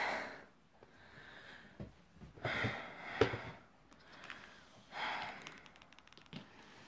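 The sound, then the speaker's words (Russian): Heavy, labored breathing of a person whose strength is running out: several loud, noisy breaths in and out at an uneven pace, with brief quieter pauses between them and no talking. “Извиняюсь, я немножко тяжело дышу, потому что сила уходит.”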